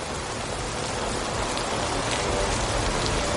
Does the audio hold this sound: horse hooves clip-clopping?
no